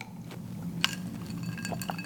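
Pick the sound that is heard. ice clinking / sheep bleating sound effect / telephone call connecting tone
ice clinking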